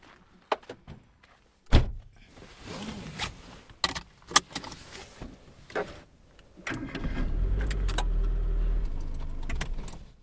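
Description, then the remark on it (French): Keys jangle and clicks sound before a car door shuts with a solid thud, followed by more rattling, then an engine starts and settles into a steady low rumble; a car in the parking lot of the radio station RCF Haute-Normandie, setting off to drive to Vernon. “C'est à 50 minutes de Rouen et là actuellement je me trouve sur le parking de la radio RCF Haute-Normandie. Je vous emmène, allez en voiture.”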